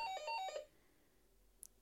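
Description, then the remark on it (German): A doorbell rings with a brief electronic chime, a quick run of four or five bright alternating tones, then the room falls quiet. No one speaks. “Hier hat jemand geklingelt.”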